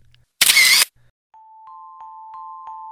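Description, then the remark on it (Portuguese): A phone camera shutter fires once with a loud, bright snap lasting under half a second, as someone with a phone in hand takes photos of people, animals and houses on a street, followed by a steady high electronic tone with faint, evenly spaced ticks running to the end. “Com o celular na mão, tirava foto de quase tudo o que via”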